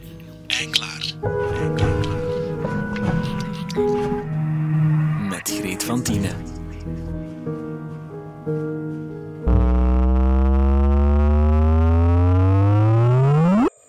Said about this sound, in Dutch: Dit geluid is iets heel bijzonders. Het is hoe een vraagteken zou kunnen klinken. Luister maar. Een vraagteken uit de kosmos dan. Het is het signaal van een zwaartekrachtgolf, veroorzaakt door het samensmelten van twee zwarte gaten